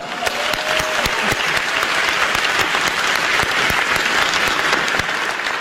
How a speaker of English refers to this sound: Ladies and gentlemen, how about another round of applause for a woman who has always done it her way, Roseanne Barr?